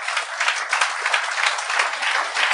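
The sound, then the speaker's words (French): A steady burst of applause from many hands, dense and continuous clapping at an even, fairly loud level for a couple of seconds, with no voices standing out. “Ça, ça vaut mal applaudir.”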